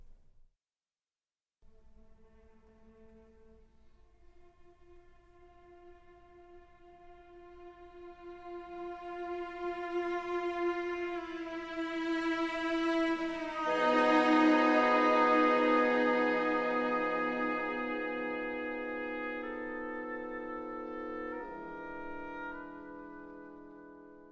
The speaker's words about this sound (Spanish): el deseo, de la añoranza, que es, a su vez, el arranque de la ópera, las primeras notas de la ópera y, por supuesto, que incluye el famoso, célebre acorde de Tristán al que hemos hecho alusión. Vaya, pues, el motivo conductor del deseo y la añoranza.